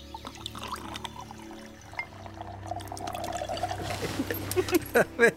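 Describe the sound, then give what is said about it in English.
Liquid pours steadily into a glass, a gurgling trickle that rises in pitch as the glass fills, clear, ending in a few louder splashy glugs. “Drink? Drink. Okay.”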